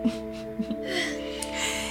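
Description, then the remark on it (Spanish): A voice imitates a long, drawn-out yawn, a breathy, open-mouthed sound that rises and trails off over about two seconds, moderately loud with no other talking. “De repente, el erizo oyó un bostezo. Imagínate bostezando.”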